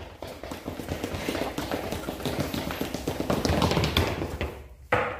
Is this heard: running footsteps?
yes